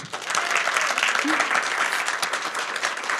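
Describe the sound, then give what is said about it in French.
A live audience applauds steadily for a few seconds, a dense wash of many hands clapping at once, fairly loud and sustained with no break. “Alors pour prouver qu'on n'est pas que tous les trois, est-ce qu'on pourrait avoir un petit peu d'applaudissements du public”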